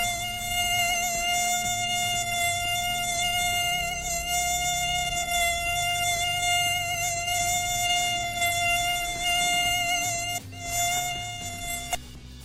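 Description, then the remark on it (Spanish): A mosquito sound effect: a steady, high-pitched mosquito buzz drones continuously for several seconds, fairly loud, with a low hum underneath and a brief dip near the end. “Si nada más tenemos de mosquito y lo demás, pero no tenemos de puerco.”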